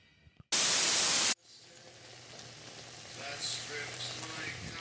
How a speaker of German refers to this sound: Ich mag die Geräusche, die Essen macht. Wenn man es kocht. Wenn man es isst oder wenn es aus dem Körper wieder rauskommt, die Geräusche sind jetzt nicht so cool, aber die Geräusche, die Essen beim Kochen macht, die finde ich richtig gut.